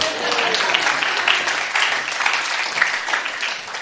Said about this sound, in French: Finalement, je veux qu'on l'applaudisse.